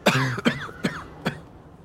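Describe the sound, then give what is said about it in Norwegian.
Four short, raspy coughs from an old man in a steady rhythm, each a sharp burst about 0.4 seconds apart, moderately loud, with no talking. “Og denne stemmen her gjør at jeg begynner å hoste litt hvis jeg ikke for lenge.”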